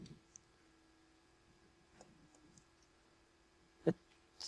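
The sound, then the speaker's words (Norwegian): A pen that is not working clicks a few times at irregular intervals as someone tries to write, mostly soft, with one sharper, louder click near the end against a quiet background. “denne pennen som ikke virker.”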